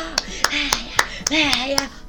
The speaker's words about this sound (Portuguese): Viu? Temos aqui Olha só, temos aqui o, o, hoje espectadores. Não, não temos. Fui eu que bati palma sozinha.